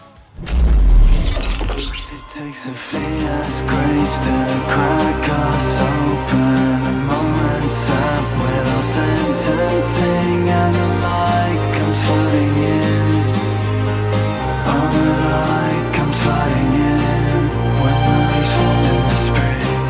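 After a brief noisy rush at the start, a slow acoustic ballad swells in with lush orchestral backing, sustained chords and layered melody playing steadily and fairly loud throughout.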